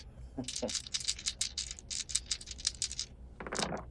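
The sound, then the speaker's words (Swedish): Dice rattle and tumble across a tabletop during a game, rolled to dominate, in a quick, dense run of small clicks lasting a few seconds, then one short final clatter. Fairly quiet, with no talking. “Nej, men slå slag för att dominera.”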